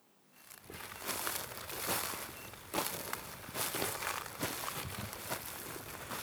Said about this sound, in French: Ici, avant, il poussait des choses. Maintenant, il n'y a que des croûtes. Des croûtes d'herbes mortes. T'entends ça, on dirait qu'on marche dans de la paille.